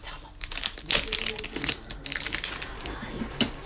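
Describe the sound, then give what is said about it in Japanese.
Plastic cling wrap is pulled out and spread flat underneath while baking, producing a crinkly crackling in several uneven bursts over a few seconds, with sharper rustles in the middle. “ちょっとラップを下に引こうよいしょ”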